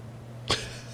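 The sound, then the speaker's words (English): A single quick sneeze bursts out once, fairly soft, over a steady low electrical hum, with no talking around it. “Bless you,”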